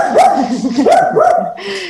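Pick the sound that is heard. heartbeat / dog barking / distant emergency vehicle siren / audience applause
dog barking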